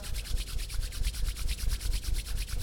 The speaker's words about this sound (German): Das ist ein bisschen körperlicher. Reibe mal die Hände aneinander. Ich mache das mal, du hörst das?